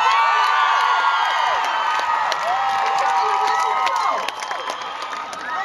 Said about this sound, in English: And um, Russell Crowe just appeared on the stage. That's why they're cheering. It's very annoying. Women screaming is uh, really, really annoying, especially for Ellen.